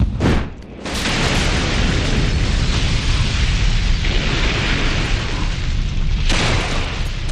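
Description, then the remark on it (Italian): Gunners of a second battery fire cannons on command, hitting an ammunition depot: sharp booms open into a loud, sustained roar of rumbling explosion, with another heavy burst near the end. No one speaks. “Cannonieri pronti! Fuoco!”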